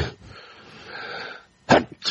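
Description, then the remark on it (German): A sharp, loud sneeze bursts out near the end after a breathy inhale, followed by another quick nasal burst, with no talking. “Gesundheit.”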